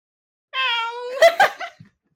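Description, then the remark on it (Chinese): A single drawn-out, nasal meow holds a steady, slightly falling pitch for about a second, then breaks into a few short, breathy bursts like a giggle before fading out. “这是猫吗？嗯，猫叫声。”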